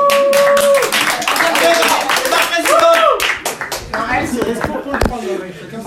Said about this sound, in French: Bravo On peut l'applaudir.